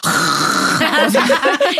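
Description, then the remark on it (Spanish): A voice imitates the loud snoring exhalation of someone asleep: one loud, raspy, buzzing breath held for nearly a second, followed by choppy voiced bursts that sound like laughter or brief talk. “eso no es exhalación, amiga, eso es ronquido.”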